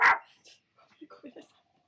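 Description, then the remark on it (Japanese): A single sharp bark from a pet dog that had been sitting on someone's lap, at the start, followed by quieter, indistinct voices and small yelping sounds trailing off. “今ね、ワンちゃんはね、もう耐えきれなくなってね。”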